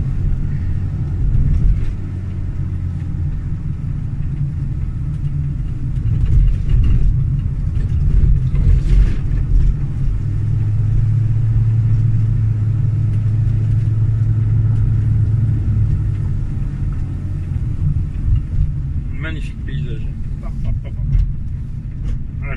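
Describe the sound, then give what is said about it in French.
A car engine braking on a downhill stretch as the driver lets off the foot brake: a steady, loud low rumble and drone from inside the vehicle, with the engine tone holding a sustained hum through the middle. “Alors, de temps en temps, il faut penser à lâcher un peu le frein, frein moteur.”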